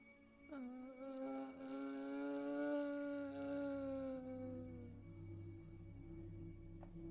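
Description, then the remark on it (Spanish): An eerie, whining moan like a howl, coming from a porch, rises suddenly and holds one long, wavering tone for several seconds before fading, leaving a low rumble underneath. No one speaks. “Y casi al momento de prenderse, el quejido se escuchó con más claridad que nunca, viniendo del porche, sin lugar a dudas.”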